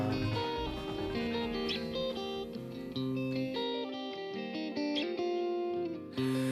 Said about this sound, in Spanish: lo que vamos a hacer es escuchar esa revisión 2015 de …, la música del …